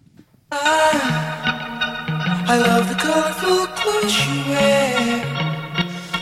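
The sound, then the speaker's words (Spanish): A pop song kicks in after a brief pause, a male lead voice singing a smooth melody over bright, full instrumental backing with a touch of reverb, loud and steady throughout. “va a ser número uno en ambos lados del, océano, en Estados Unidos y Inglaterra, que es …. Escuchémosla.”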